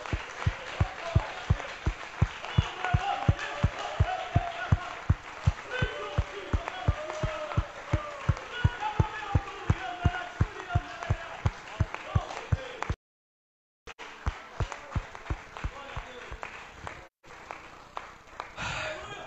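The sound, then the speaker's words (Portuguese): An audience at a worship service claps in steady unison to praise the Lord, sharp loud beats repeating two or three times a second over a murmur of voices, with a brief break before the rhythmic clapping resumes. “Aplauda o Senhor.”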